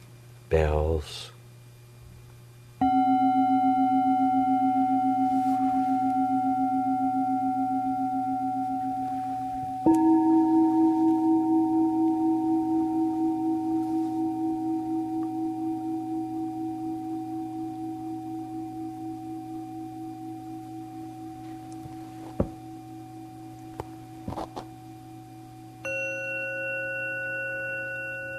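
A meditation bell rings out three times, each strike a clear, pure tone with a long, slowly fading sustain that blends into the next, over a low steady hum.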